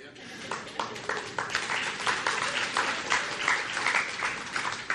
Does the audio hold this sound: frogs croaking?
no